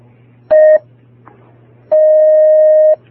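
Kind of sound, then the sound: signal or alarm, telephone dialing tones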